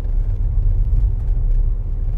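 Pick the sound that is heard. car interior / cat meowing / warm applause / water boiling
car interior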